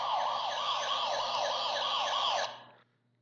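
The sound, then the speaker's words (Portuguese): A loud siren sound effect wails in a rapid, regular up-and-down sweep for about two and a half seconds, then cuts off abruptly. No one speaks. “Vou até tocar a sirene aí, ó.”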